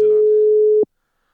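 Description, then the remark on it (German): A single steady telephone tone rings out loud and clear for just under a second while calling a guest to connect him, then cuts off abruptly into silence. “Ich rufe ihn an, Achtung.”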